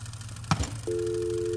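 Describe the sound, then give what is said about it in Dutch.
A plastic clunk as a telephone receiver is lifted at a garage, as someone acts out answering the phone for filming, followed immediately by a steady, continuous dial tone that holds to the end over a low background hum. “Doe maar net alsof je de telefoon opneemt.”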